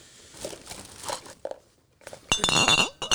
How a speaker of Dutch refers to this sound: gaat in zijn tas zoeken.